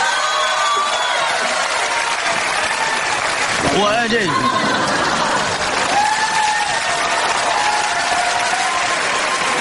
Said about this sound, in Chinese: 感谢大家收听我的演唱会，谢谢你们的掌声，拜拜。